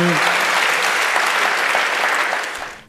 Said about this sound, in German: Ihr Applaus.